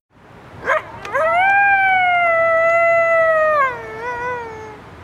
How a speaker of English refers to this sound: Is that a wolf? A German shepherd? No, friends, it's a coyote, or a coyote where I'm from.